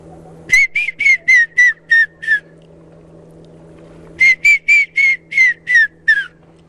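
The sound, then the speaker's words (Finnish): A person whistles an imitation of a grey-headed woodpecker call: two loud series of about seven clear, descending notes each, separated by a short pause, over a low steady hum. “No kokeillaan, kokeillaan harmaa päätikkaa, se menee tälleen.”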